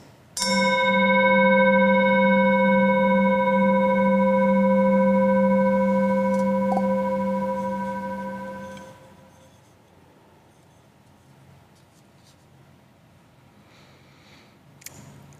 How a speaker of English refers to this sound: As we listen to the chime, let us remember our connection to each other and the world around us.